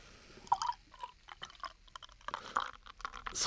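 Yebisu beer glugs and splashes into a glass in uneven bursts, with soft fizzing that swells into a brighter hiss of foam at the end. It is fairly quiet and no one speaks.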